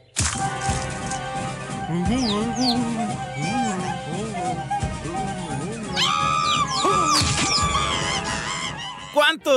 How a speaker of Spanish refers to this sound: Y, con los recuerdos de aquellos años cuando veíamos pues a esos tiernos animalitos del bosque matándose entre sí ah, de una forma despiadada y gritando así, ¡ah! ¡Escuchen ustedes!